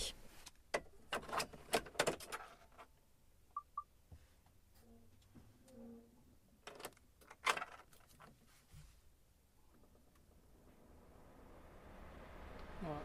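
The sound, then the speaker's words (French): Keys jangle and a few sharp clicks sound as an electric truck is started with the key. Then a soft ventilation blower whooshes up inside the truck's cabin, its airy hiss growing steadily louder toward the end. “le véhicule a démarré, ce qu'on entend c'est la soufflerie.”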